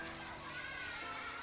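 Excited children's voices chatter and shout together outdoors, heard from beyond a window as they search for something together, a steady, lively jumble of play that sounds soft, with no single voice standing out.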